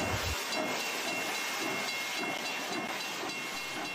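steam train hissing

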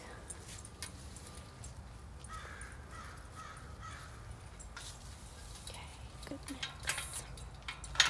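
crow cawing

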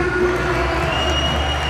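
arena crowd applauding

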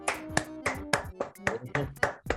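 hand clapping

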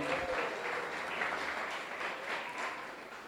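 round of applause

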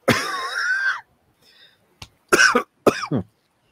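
sneeze or cough

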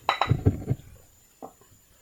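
glasses clinking

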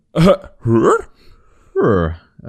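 cough

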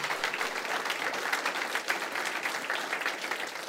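audience applause

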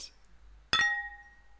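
glasses clinking

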